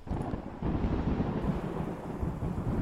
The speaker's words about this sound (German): Und ihr seid plötzlich mitten in dem Gewittersturm gefangen. Regen beginnt das Schiff zu treffen, heftiger Regen.